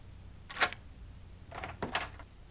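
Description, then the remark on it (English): A door being opened: a sharp metallic click from the latch, a short pause, then a cluster of rattling clicks and a creak as the handle turns and the door swings. “will you please open the door?”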